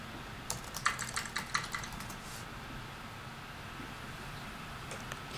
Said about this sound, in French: et là, on discute par texte. Donc, on tape sur le clavier et, il lui me répond à la fois sur le clavier.